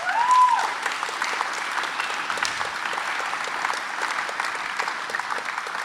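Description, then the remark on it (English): A crowd applauds steadily for several seconds, a dense wash of many hands clapping at once, evenly sustained, with no voices standing out above it. “Can you just, for a moment, yeah, that's worth a clap, I think.”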